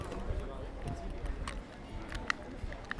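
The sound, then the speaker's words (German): Footsteps on cobblestone pavement, a handful of crisp, uneven taps spaced irregularly over a low, rumbling outdoor background with faint murmuring voices. “Man hat jetzt tatsächlich gehört den Übergang von ähm, Kopfsteinpflaster mit kleinen”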